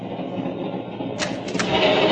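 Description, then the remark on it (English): A train corridor door is pulled open on a moving train over a steady rattling rumble; about halfway through a sharp clatter breaks in and the rushing, hissing train noise grows louder and stays up. “Open that door, Watson.”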